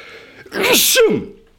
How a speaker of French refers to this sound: Je sens que je vais éternuer.